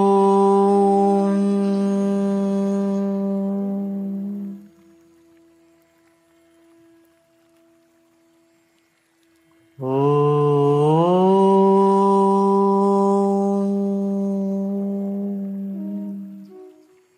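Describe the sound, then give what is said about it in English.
Two long chanted Oms from a single voice, each a steady, deep, sustained hum that rings on and fades through a quiet pause before the second, slightly longer chant swells in. “Feel that sound reverberating in your whole body and feel the sound surrounding your whole body.”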